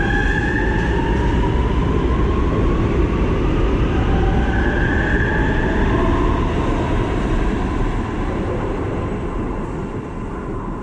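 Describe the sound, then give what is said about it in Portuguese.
A steady, loud rumble from inside a moving train, with wheels clattering on the rails and faint metallic squeals drifting in and out. No voices. “Boa noite, boa tarde, né, nesse trem maluco que a gente tá.”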